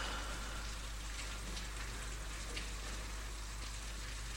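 Steady, soft rain falls at night on 8 April with an even hiss, scattered light drop ticks, and a low constant hum underneath. There is no talking and the level stays quiet and unchanging throughout.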